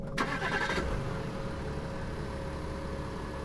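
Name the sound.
car engine starting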